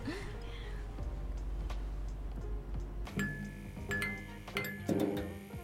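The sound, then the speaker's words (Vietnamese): Glasses clink together in a toast, several bright ringing taps in quick succession after a low, murmuring background hum, fairly clear. “rồi à, nãy giờ cách nói nhiều quá phải mời cách cụng ly chứ yeah.”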